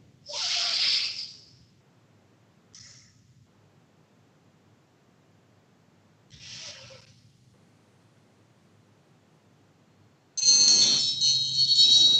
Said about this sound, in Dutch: Je zet je handen op je buik. Je adem in en uit door je neus. En je brengt je ademhaling heel erg laag en langzaam. Zo langzaam mogelijk.